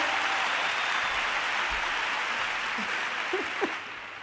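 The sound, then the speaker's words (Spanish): A crowd applauds to vote for keeping the white panties, a dense, even wash of many hands clapping that holds for about four seconds before thinning out at the end. “Vale, quien quiera que se quede la braga blanca, que aplauda.”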